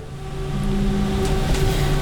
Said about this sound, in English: I just reached uh, the final stop on the tram.